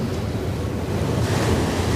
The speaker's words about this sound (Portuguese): Ao longe, um barco navegava. Soprava ventania. O mar se revoltava e as ondas a rolar ameaçadoramente pareciam querer tragá-lo de repente